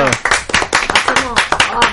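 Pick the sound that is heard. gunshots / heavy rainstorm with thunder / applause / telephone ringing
applause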